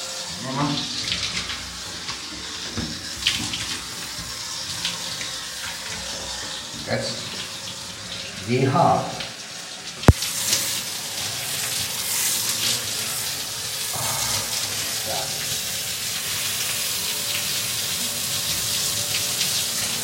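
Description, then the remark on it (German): Warm shower water runs steadily with a continuous hissing spray, broken by a few brief muffled bursts and a sharp knock midway. “Werk ist duschen wieder mehr. Wasser wird für mich schweinewarm.”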